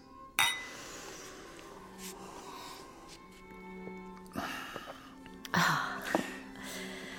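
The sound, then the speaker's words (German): Champagne glasses clink together in a toast, several bright, ringing chinks spaced a few seconds apart, fairly loud, with soft clatter and background noise between them. “Prost. Auf dich und deinen lang ersehnten Traum.”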